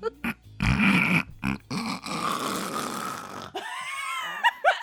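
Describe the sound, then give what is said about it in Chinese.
A person imitates snoring, as a joke in reaction to talk about English grammar clauses, with a few short rasping snorts, then a long, loud, gravelly snore that drags on for about two seconds, followed by brief voiced sounds like laughter. “就是我一讲文法，然后你就开始打呼这样。”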